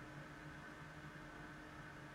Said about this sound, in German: Das ist nicht für ein fieser Lüfter? Das ist eine Klimaanlage vor dem Studiofenster. Oder? Ich glaube nicht. Doch? Doch. Mach mal ein Fenster zu, dann ist das Geräusch weg. Also fast.